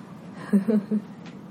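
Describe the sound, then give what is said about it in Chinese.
Three short, muffled meows from a pet cat named Banli (板栗) wanting to come in, in quick succession, fairly low-pitched and soft, followed by a faint brief click. No one speaks. “哦，我的猫猫在叫，”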